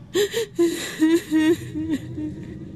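The nymph Echo sobs in a series of short, breathy, wavering cries, about six halting sobs in quick succession with catching breaths between them, and no talking.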